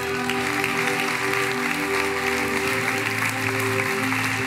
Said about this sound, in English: Let's give them a hand.